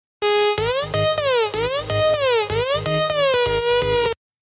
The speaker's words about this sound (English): Alarms are going off.